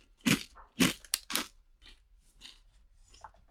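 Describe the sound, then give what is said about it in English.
Several sharp, loud crunches of someone biting into Bawang Cornick, a crispy fried corn kernel snack in barbecue flavor, followed by softer, quieter chewing crackles. “Oh, that crunch.”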